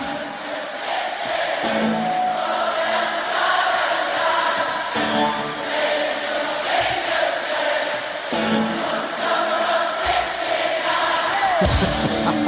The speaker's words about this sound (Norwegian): Eh, det var altså eh, stormende jubel, skjønte jeg